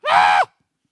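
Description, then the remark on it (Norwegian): A single short, loud scream from a speaker demonstrating crying out to God, high-pitched and piercing, lasting under half a second and then cutting off into silence. “Det er lov å skrike til Gud.”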